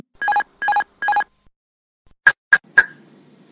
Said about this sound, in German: schmeißt auf gut Deutsch gesagt den Autopiloten raus. Ähm, das wird den Piloten mit einer deutlichen Warnung äh, tatsächlich auch gezeigt. Ich habe sie eben schon mal in der Geschichte äh, kurz gehabt. Die hört sich tatsächlich so an.